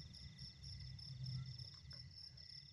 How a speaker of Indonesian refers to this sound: Jam 9 malam mereka tiba di Dusun G. Di antara riuh rendahnya nyanyian katak dan cengkrik, samar-samar terdengar alunan gamelan yang dipancarkan lewat pengeras suara.